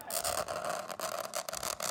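Chalk screeches across a blackboard as a teacher writes a homework list: a harsh, grating scrape that runs steadily for about two seconds, loud, with a few brief catches in the stroke.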